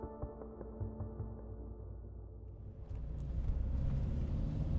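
A steady, low engine drone from inside a moving car, holding a monotonous hum that grows a little louder and rougher with added road noise partway through. No one speaks.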